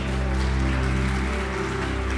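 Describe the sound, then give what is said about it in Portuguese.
Dense, steady clapping from a large crowd at a Sunday morning church celebration, applauding the people serving at the service, a continuous rain-like patter with a sustained low musical drone underneath and no speech. “Vamos dar uma salva de palmas para as pessoas que estão servindo nessa celebração da manhã.”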